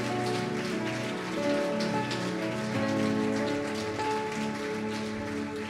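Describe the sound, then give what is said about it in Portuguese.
A crowd claps loudly and steadily for several seconds as applause to the King of Glory, a dense crackling roar that holds even throughout. Sustained keyboard-like musical tones ring underneath. No one speaks. “Se você tem fé para isso, diga amém e dê um aplauso bem forte ao Rei da Glória.”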